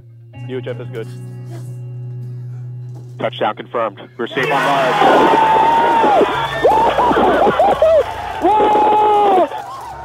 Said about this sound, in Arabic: هذا صوت الطاقم بغرفة التحكم لحظة هبوط المركبة هل يا ترى رح يستمر صوت الفرحة لحد وصولنا إلى المريخ